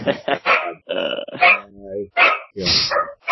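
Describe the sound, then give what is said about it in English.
A dog barks repeatedly, a quick run of loud, rough barks broken by a brief low, drawn-out rumble midway through. “Somebody get the dog.”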